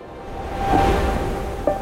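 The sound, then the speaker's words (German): A brief wash of ocean surf, a broad rushing hiss that swells to a peak and holds steady, with faint tonal streaks drifting through the noise. No voices are heard. “Meeresrauschen.”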